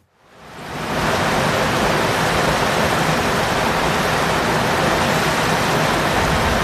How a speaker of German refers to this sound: Und äh, bei dieser Mauer fließt dann das Wasser hinaus. Und vielleicht hören wir uns mal an, wie das klingt.